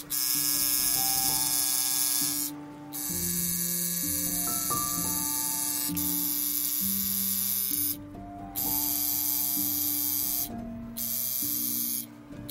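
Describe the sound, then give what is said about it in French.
A tattoo artist's machine needle buzzes steadily while a person is being tattooed, in harsh, droning bursts. Its pitch steps up and down, broken by three brief pauses. No one speaks. “Je grimace parce que le son que j'entends, je le trouve assez désagréable. C'est l'aiguille du, du tatoueur.”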